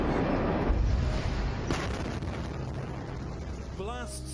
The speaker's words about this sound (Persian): إنها من بين الصور الأقرب للانفجار الكبير الذي دوى في بيروت في الرابع من آب Extraordinary images tonight of deadly explosions felt by millions in Lebanon.